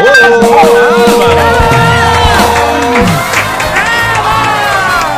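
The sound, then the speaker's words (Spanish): A studio audience in a radio booth cheers and whoops loudly in favorable reaction to a sung performance, many overlapping voices rising and falling in excited shouts, with scattered clapping mixed into the steady roar. “Pues así alcanzas a escuchar la reacción del público presente en cabina, pero te puedo decir que es favorable, harto favorable.”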